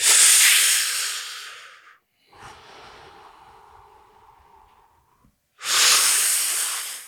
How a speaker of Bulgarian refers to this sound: Тоест, дишането е нещо такова, може да ме чуете. Вдишвам, който иска може да диша през носа, не е нужно през устата, аз го правя нарочно през устата, за да може да усетите и да ме чуете и почвате.